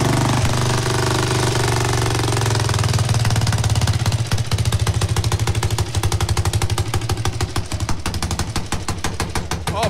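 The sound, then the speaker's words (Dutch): A loud factory racing motorcycle engine runs hard with flames shooting out, starting as a steady roar and breaking into a rapid, staccato popping rhythm as it revs, with no voices. “Dit is wel een heel mooi motorgeluid. Het is een racer, echt een fabrieksracer.”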